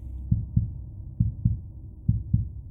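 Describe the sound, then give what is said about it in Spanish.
A heart, just cut from a chest, beats three times outside the body in a slow, even rhythm, each beat a deep, muffled lub-dub pair over a low rumbling hum, with no voices. “deslizó un cuchillo por el lado izquierdo de su pecho, introdujo su mano en la herida y extrajo su corazón el cual aún latía un par de veces fuera del cuerpo.”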